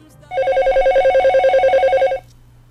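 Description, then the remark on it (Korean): A telephone at a company office rings once in the afternoon: a loud, rapidly warbling electronic trill lasting about two seconds, with a steady high-pitched tone and no voices. “이틀째 되던 날 오후 회사로 전화 한 통이 걸려왔습니다.”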